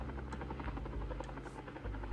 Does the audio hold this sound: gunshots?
no